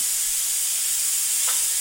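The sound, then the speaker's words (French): A pressure cooker's steam jet hisses loudly and steadily throughout, a bright, airy rush with a brief extra spurt near the end. No one speaks. “Ça me fait penser à une cocotte minute et j'imagine ma voisine se mettre à siffler avec un jet de vapeur au-dessus de la tête.”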